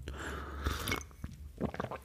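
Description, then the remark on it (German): A loud slurp of coffee sipped from a cup, a short noisy burst followed by softer mouth sounds and a faint clink. “Ich schlürfe nicht so, das muss ich jetzt hier für euch machen.”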